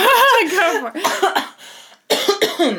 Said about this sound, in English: I do not clear my throat in a week as many times as I do it while we are here recording